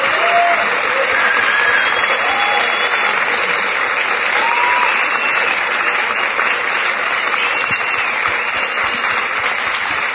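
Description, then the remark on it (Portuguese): Steady audience applause for a guest who has told her life story fills the whole stretch, a dense, even wash of many hands clapping at a constant loud level, with a few faint whistles or cheers rising above it. “Olha, decididamente, se tem alguém que merece os aplausos, é você.”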